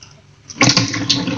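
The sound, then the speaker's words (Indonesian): Running water from a tap at the sink bursts on after a brief quiet start and keeps up a steady, hissing rush while dishes are washed, with a faint clatter of plates underneath. “Kalau kamu lagi dengerin podcast ini dan mendengar suara-suara seperti air atau suara eh, piring-piring uh, piring -piring yang hampir pecah, itu artinya kamu lagi dengerin aku yang lagi cuci piring sekaligus cerita”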